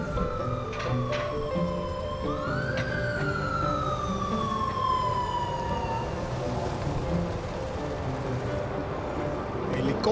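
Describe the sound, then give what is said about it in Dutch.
Police motorcycle sirens in Brussels wail, sweeping up and down, rising and then sliding slowly downward before fading, over steady street traffic noise with some background voices. “Politiemannen op de motor. En met eh, sirenes aan eh, voor mijn neus.”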